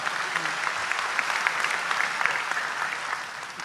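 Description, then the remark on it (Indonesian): A crowd applauds steadily for Kiai Haji Agus Ali Mazhuri of PWNU Jawa Timur, a dense wash of many hands clapping at an even level throughout, with a faint murmur of voices underneath. “Tepuk tangan untuk beliau.”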